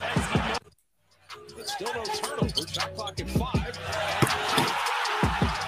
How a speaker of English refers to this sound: they're just letting the crowd go nuts. So it's like all you hear is crowd